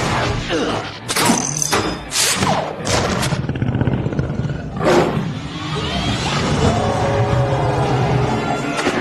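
Tigers roar and snarl in deep, rasping bursts over a rumbling, noisy background, with several sharp thuds and scuffling sounds mixed in and no speech.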